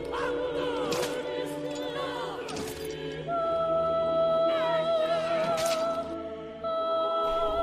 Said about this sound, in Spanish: Todos los latigazos que él recibe los padece mi alma.